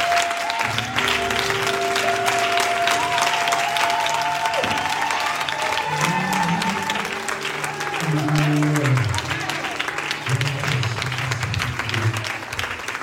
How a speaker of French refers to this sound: On acclame son Seigneur. Mon Seigneur, pour son Seigneur.